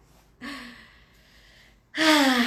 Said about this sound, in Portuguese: Solta o ar bem devagar. Respirou? Não adianta ficar parado esperando eu terminar de respirar.